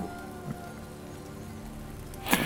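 A steady patter of water falling like rain, dense and continuous at moderate volume, with a couple of louder splashes breaking through, the sharpest just before the end. No one speaks.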